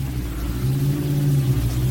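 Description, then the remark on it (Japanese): A motorcycle engine revs outside with a deep, steady rumble that swells and rises in pitch partway through, continuous, with no voices. “元気なバイクがブンブン言ってますね。”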